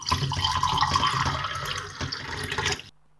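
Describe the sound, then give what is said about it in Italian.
Scotch whisky is poured straight, without ice, into a glass in one steady stream lasting about three seconds, its gurgling splash holding fairly even before stopping abruptly. No one speaks. “Allora, con lo scotch proseguo. Come desidera? Con ghiaccio? No, liscio.”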